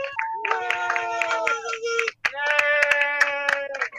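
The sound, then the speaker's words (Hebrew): Scattered applause from a street crowd applauding from windows at seven in the evening to cheer doctors, nurses and delivery workers, sharp claps echoing between buildings, mixed with sustained whistles or tonal cheering that rise and fall over about four seconds. “אתה שומע את מחיאות הכפיים, כן, בשקט.”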